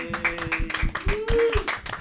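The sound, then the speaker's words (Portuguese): A short burst of rapid, overlapping hand claps for two women guests, like a small group applauding for about two seconds, with a steady tone and some voices mixed in. “Gente, palmas para elas.”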